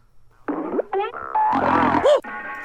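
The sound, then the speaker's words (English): A loud, cartoonish fart sound: several brassy, sputtering bursts with bending pitch, one right after another, prominent, ending on a longer blaring blast. “Full on fart.”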